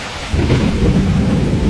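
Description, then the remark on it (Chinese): A deep, loud rumble of thunder swells in after a brief moment and rolls on steadily, layered over the dense hiss of heavy rain pouring down. No voices are heard. “伴着雷鸣闯进小飞的客厅，暴雨接踵而至。”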